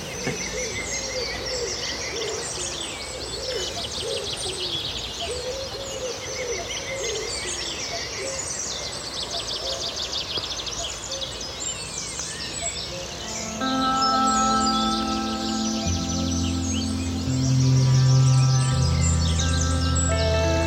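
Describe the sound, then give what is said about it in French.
A dense chorus of marsh birds chirps and trills continuously, many voices overlapping, with a steady low droning hum joining in the second half; heard from a boat in a marsh of tall yellow grass by the Rance river. “immersion sonore au royaume des oiseaux.”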